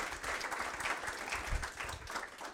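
Sustained audience applause for two presenters at the end of a talk and question session, a dense, steady wash of many hands clapping at once with no pauses, holding at an even, fairly loud level throughout.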